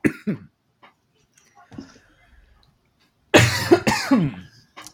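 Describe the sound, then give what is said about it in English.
A couple of short, choked coughs, then after a quiet pause a loud burst of harsh, sputtering coughs from a person who was caught off guard while drinking water and swallowed it down the wrong way. “Drinking some water while you uh, commented about that deck name and kind of caught me off guard there a little bit.”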